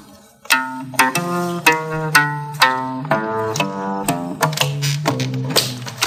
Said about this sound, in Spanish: es el Chelo Legüero construido por Gerardo Mazana en 1966. Este es el Chelo Legüero. Es un chelo hecho con un bombo legüero, un bombo argentino, bueno, un diapasón de chelo y suena así.